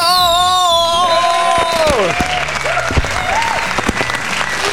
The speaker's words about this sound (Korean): 자 여의도에 폭죽 한번 써볼까요? 축하 축하 치요.